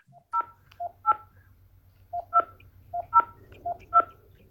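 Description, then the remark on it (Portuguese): A series of short, distinct telephone keypad beeps as a caller types in a power-of-attorney number, about nine tones in irregular groups, clear over a faint low hum. “Você pode digitar o número da procuração, por favor?”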